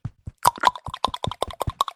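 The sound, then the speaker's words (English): A mouth imitating a golf clap: a rapid, slightly uneven run of about fifteen soft, clicky pops over two seconds, with no talking. “That was a mouth uh, clap.”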